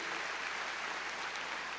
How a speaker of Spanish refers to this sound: Démosle palmas fuertes a nuestro Señor. Muy bien.